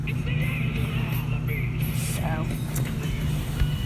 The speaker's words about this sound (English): But, oh, there's the lawnmower. Traveling very quickly, cutting things making our grass nice and all that good stuff.